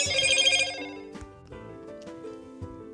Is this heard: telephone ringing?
yes